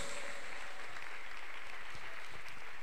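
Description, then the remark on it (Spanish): A crowd claps steadily and loudly as an offering of applause to the Holy Spirit in a religious service, a dense, continuous wash of many hands for the full few seconds, with no voices standing out. “A quien pido una fuerte ofrenda de palmas que está aquí, el Espíritu Santo de Dios.”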